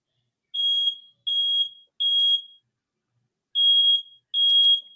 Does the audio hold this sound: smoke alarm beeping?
yes